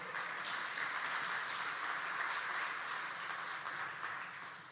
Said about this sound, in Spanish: ¿Cuánto le da un aplauso al Señor por eso?